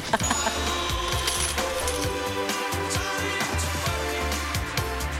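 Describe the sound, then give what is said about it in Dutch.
A busy Albert Heijn supermarket checkout: a cash register clatters steadily, with metallic clinks like coins and keys over a constant low mechanical hum, at a fairly even loudness throughout. “De Albert Heijn gisteren. De kassa.”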